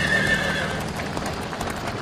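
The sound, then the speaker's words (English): A horse pulling a caravan, frightened by a motorcar driving past, whinnies sharply and loudly, its shrill neigh wavering over a steady background of rumbling noise and faint hoof clatter. “The horse is frightened”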